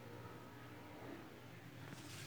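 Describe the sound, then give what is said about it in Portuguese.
Motorcycle engines drone and rev outside, a steady rumble that swells slightly near the end as the bikes pass by. “Não fica andando de moto igual esses caras. É o barulho do caramba. Estão ouvindo?”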